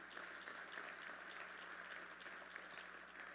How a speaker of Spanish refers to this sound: Dele un aplauso a Jesús.